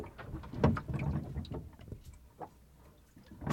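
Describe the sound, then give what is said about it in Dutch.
Irregular knocks and rattles of gear on an anchored sailboat shifting and clanking as the wind picks up, over a low wash of wind and water, with no talking. “Toen ging het wat minder klapperen, maar nu is het toch allemaal weer dit lawaai aan het maken.”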